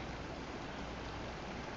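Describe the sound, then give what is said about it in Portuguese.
A steady, even rush of running water flows without pause, a soft continuous hiss with no voices and no distinct drips or splashes standing out. “Som de água corrente.”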